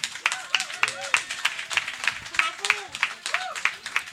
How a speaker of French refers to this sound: Euh, moi, je trouve que c'est une discussion intéressante qu'il y a à avoir et c'est pour ça que vous allez applaudir notre invité